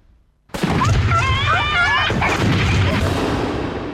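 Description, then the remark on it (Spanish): A sudden, loud burst of fireworks: booming blasts and dense crackling with shrill whistling rockets rising and wavering overhead, continuing in a thick barrage before easing slightly. “En estas fiestas, Pirotecnia Cero, municipio de Morón, corazón del oeste.”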